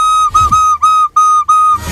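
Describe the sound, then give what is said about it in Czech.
A flute sounds one steady, fairly high note, blown as four short bursts of the same pitch with brief breaks between them. It is clear and moderately loud, with no talking. “OK, ale teď se, jak jsem fouknul, pozor.”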